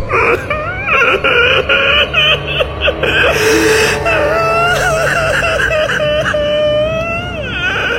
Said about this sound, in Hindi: और इतना बोल के जोर जोर से रोने लगा